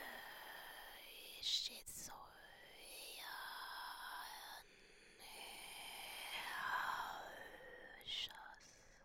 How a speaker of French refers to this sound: C'est une voix qui va travailler un chuchotement qui va passer par le haut de notre palais et qui va permettre d'ouvrir toute notre colonne d'air et de d'étirer notre souffle.